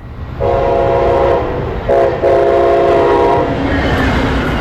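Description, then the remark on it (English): A loud Brightline high-speed train horn blares in two long sustained blasts, the second starting after a brief gap, over the steady rumble of a passing train. “But people living near the tracks say the horns, like the one you just heard, blare at all hours of the night.”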